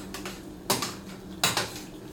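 A utensil scrapes and clinks against the inside of a pot as tomatoes are stirred into a pasta sauce, two louder strokes among fainter ones, with a low hum underneath and no voices.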